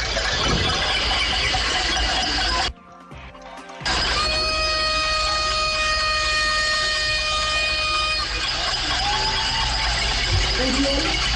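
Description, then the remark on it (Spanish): A loud, dense clatter of many pots and pans being banged together at a street protest (cacerolazo) in the Bochica neighbourhood of Bogotá, Colombia, with a sustained metallic ringing tone, a brief drop-out partway, and crowd noise throughout. “En varios sectores, ya no, no solamente en el centro de Bogotá, sino también nos llegan reportes a esta hora del momento cacerolazo en el barrio Bochica, esto por Tal 80. Así suena.”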